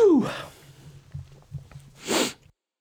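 sneeze

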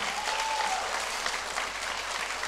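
audience clapping

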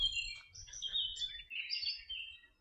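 birds chirping outdoors

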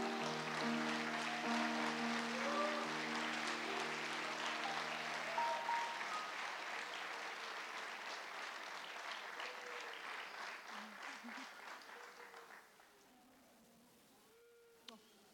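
warm applause

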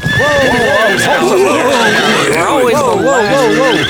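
horse neighing

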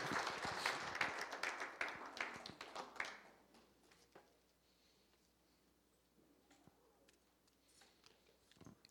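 audience applauding

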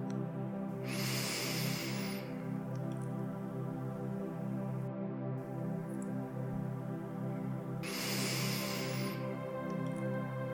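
deep breaths

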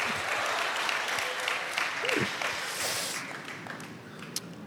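audience applause

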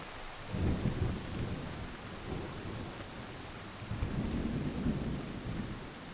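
thunder booming

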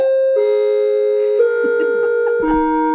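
doorbell ringing

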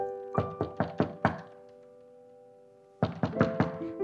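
door thud

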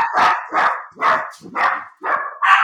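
dogs barking

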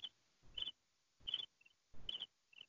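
cricket chirping

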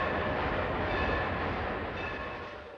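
train running on rails

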